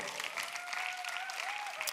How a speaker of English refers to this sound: All right? Let's go give God for a bigger round of applause.